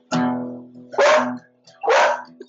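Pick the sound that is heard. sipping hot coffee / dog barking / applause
dog barking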